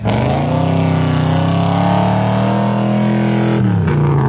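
A loud V8 car engine revs hard, its deep roar holding a steady pitch before briefly dipping, as if shifting gears, then surging again. No voices.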